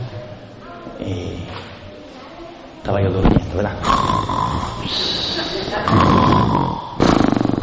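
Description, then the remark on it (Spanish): A person loudly imitates snoring with their voice, making harsh, rasping snorts that repeat over several seconds and grow louder toward the end. “Así como ronca tu viejo más o menos”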